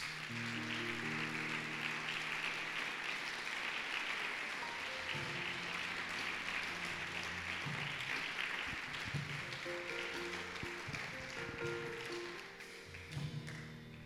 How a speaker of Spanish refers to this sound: Eso merece un aplauso, mis amados.